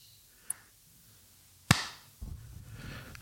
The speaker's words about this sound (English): Oh, we got to clap. Yeah, clap it up. Do it again.